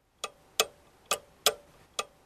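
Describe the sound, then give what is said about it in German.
Five crisp mechanical ticks from a clock's verge escapement, falling in a slightly uneven tick-tock rhythm against a quiet background with no voices. “Das Erkennungszeichen dieser Spindelhemmung ist das Ticken.”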